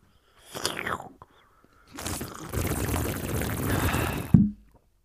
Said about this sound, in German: Ich hoffe, mein, mein Glühwein-Gurgler klang ein bisschen mehr wie Bon rauchen. Ich glaube, das hat's getan. Klassisches Bongeräusch.